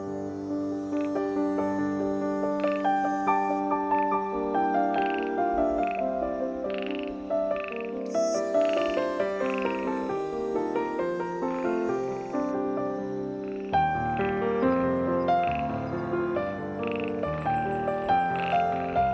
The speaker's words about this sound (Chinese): 有时候也会听到青蛙的鸣叫声，声音虽然很大很多，但并不嘈杂，反而很和谐，很美。